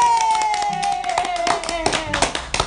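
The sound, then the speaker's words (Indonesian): A group does a Pramuka (Indonesian scout) clapping routine, clapping their hands in a quick rhythmic pattern, loud, while voices chatter and a sustained tone drifts underneath. “berisik bangsat ulang tahu ini tepuk pramuka tiga kali.”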